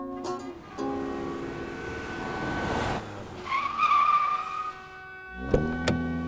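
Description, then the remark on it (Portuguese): A car engine hums and whines as the vehicle slows to pull over and pick up a young hitchhiker, with a brief squeal of tires braking before it settles to a stop, fairly loud, with no one talking. “Parei e mandei que ele entrasse no carro.”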